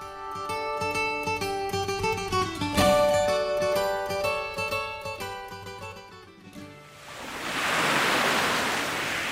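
Music with sustained tones plays and fades out, then a broad wash of ocean waves swells up alone, a soft, steady roar of surf rising over the final few seconds; the wave sound opens a song.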